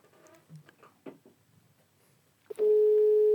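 Soft clicks and faint rustling give way to a sudden, loud, steady electronic telephone tone that holds on a single pitch to the end.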